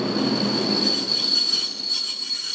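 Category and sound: ambience, train station ambience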